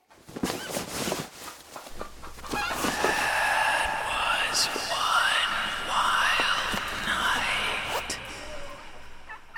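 Several turkeys on a turkey farm gobble in bursts of rapid, warbling calls that overlap and repeat over a steady background of farmyard noise, loud.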